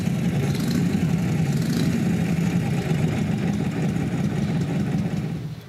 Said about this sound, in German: Made from 1936 to 1947, this is the knucklehead engine.